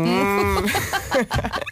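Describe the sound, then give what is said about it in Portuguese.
A short, drawn-out moo, probably a person imitating a cow, held for about half a second before breaking into lively talk and laughter. “Olha como é que fazia a vaca ontem.”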